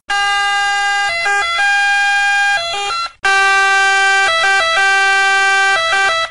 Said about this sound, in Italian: L'effetto Doppler è quello che quando sentite l'ambulanza che si avvicina, la tonalità è, è, è in un certo modo e poi quando si allontana è in un altro modo.